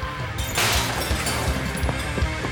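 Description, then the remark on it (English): Mirrors, glasses and bottles in a saloon bar shatter with a loud crash when hit by thrown stones, followed by a dense spray of tinkling shards and scattered clinks and thuds continuing for a couple of seconds, busy. “Carrie aimed for anything that looked breakable shattering the saloon's mirrors, glasses, and bottles.”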